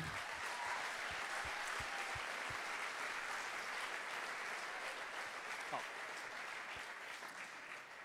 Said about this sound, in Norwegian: En stor applaus til Sennep-gjengen.